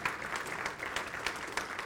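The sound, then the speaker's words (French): An audience claps steadily for the brothers and sisters who keep the place clean, a dense, even patter of many hands with slight swells, no voices standing out over the applause. “Et j'aimerais qu'on donne une main d'acclamation à ces frères-là et ces sœurs qui sont dans l'ombre.”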